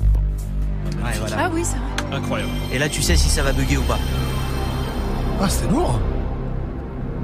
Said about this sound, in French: Il y a aussi un son, c'est le son de à l'allumage de la PS1. Ah oui de, la oh, PlayStation on a ça ou pas On a le son